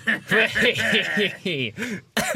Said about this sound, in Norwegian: Oi, hoste.